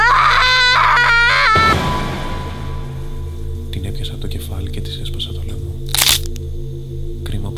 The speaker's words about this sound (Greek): Μπήκε στο μπάνιο και τράβηξε την κουρτίνα. Όταν τον είδε νεκρό άρχισε να ουρλιάζει.